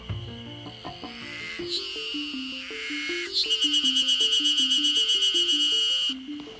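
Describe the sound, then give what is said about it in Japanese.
A spring cicada calls in Izu, Japan, in a steady, rapid pulsing rhythm that builds after a few seconds and holds loud and clear, with no voices over it. “聞こえました今の伊豆春ゼミです”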